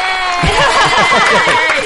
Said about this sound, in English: you get sound effects. Cue the fake clap